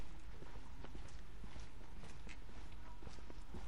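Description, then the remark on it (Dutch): Footsteps walk along a street at a steady, unhurried pace, each step a soft, distinct tap over a constant background hum of outdoor noise. No one speaks. “Laten we vast die kant op lopen.”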